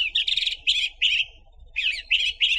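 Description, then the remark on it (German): A song thrush sings a series of short, bright, repeated phrases in quick bursts with brief pauses between them, clear, with no talking. “Weitere 10 Minuten später kommt die Rauchschwalbe und dann folgen die Singdrossel”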